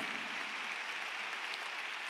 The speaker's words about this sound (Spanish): Por favor, brindémosle un fuerte aplauso al Señor con mucha alegría.